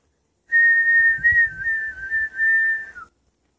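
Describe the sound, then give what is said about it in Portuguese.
A person whistles one long, steady, clear note, imitating a bird's song, holding it for about two and a half seconds before it dips briefly at the end. It is alone, with no talking. “Chegou outro passarinho lá, cantando.”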